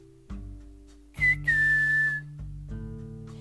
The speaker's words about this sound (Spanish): Así que la llamó con un silbido especial